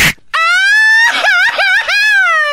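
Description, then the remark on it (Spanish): A loud crying wail: one long, high sustained voice that rises, then breaks into wavering sobbing quavers. A short breathy gasp comes just before it. “No, déjenme gritar eso, está llorando a ver, dale.”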